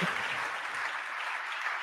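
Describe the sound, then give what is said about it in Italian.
Audience applause for President Albarani: many hands clapping in a dense, steady patter that holds at an even loudness for the whole couple of seconds, with no voices over it. “Io inizierei con un applauso per il Presidente Albarani.”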